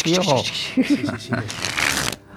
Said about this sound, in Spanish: ya estaba haciendo cositas con las cartas y yo ya me quedé pero asombrado con dos cosas con dos cosas que hizo aquí además para chulear